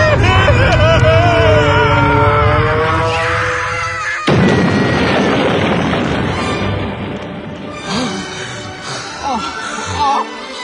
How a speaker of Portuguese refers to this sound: Me pareceu uma queda de avião e não de helicóptero. Mas não tinha. Me parece que foi um disco de efeito errado.